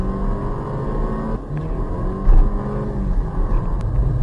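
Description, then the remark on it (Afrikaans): A car engine drones steadily as the car is driven fast around a corner in Sport Plus mode with traction control partly reduced, its pitch rising and dropping as it accelerates hard and eases off, with a brief surge of revving midway and no voices. “En jou traksiebeheer word uh, tot 'n mate af gestel, maar daarom nog sodat jy nie die kar heeltemal gaan verloor as jy vinnig om 'n draai skiet.”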